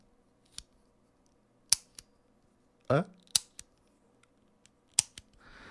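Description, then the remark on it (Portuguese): A Bic four-color ballpoint pen clicked repeatedly, a series of sharp, crisp plastic snaps at uneven intervals, with one brief spoken interjection midway. “E foi o ponto alto da minha semana, comprar uma Bic quatro cores.”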